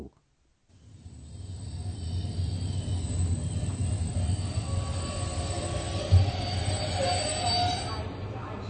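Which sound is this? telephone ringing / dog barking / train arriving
train arriving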